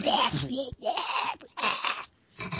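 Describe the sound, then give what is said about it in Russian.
A voice imitates a hoarse, duck-like squawk in several raspy, garbled bursts, loud, with short pauses between them and a brief final squawk, as a panicked man crawling back behind a tank tries to croak out an order to cease fire. “превратился в Дональда Дака.”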